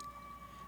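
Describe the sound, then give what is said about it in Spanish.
A brief snatch of an ambulance siren, an ambulance heading to a COVID hospital: a steady, high wailing tone heard faintly, with no voices over it. “¿Ustedes creen que esa es una ambulancia que va porque va una mujer a dar a luz?”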